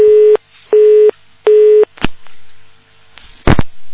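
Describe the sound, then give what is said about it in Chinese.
A telephone busy tone heard while a caller tries to get through on the phone line: three steady, mid-pitched beeps in an even on-off rhythm, followed by a few sharp clicks and crackles on the line. “啊啊，今天打电话比较难一些。”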